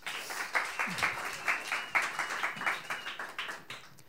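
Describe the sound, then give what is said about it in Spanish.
An audience breaks into steady applause, many hands clapping in a dense, rhythmic patter that holds at a moderate level throughout, with a brief murmur of voices underneath. “Un aplauso”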